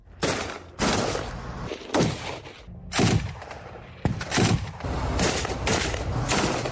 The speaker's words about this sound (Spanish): Sin embargo, en terreno, a solo 10 kilómetros de la amenazada ciudad de Rafah, así se escuchan los combates.